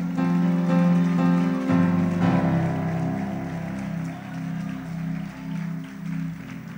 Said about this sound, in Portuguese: Vem. Vem, vem, vem, vem, igreja, aplaude o Senhor.